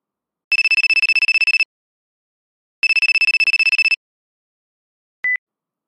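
A telephone rings in two rapid trilling bursts of about a second each with a pause between, then a single short beep, clear with no voices.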